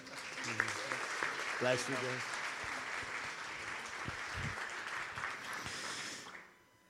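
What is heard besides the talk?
audience applause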